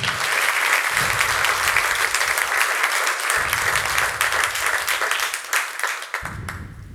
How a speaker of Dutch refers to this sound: Lieve mensen, maak een warm applaus voor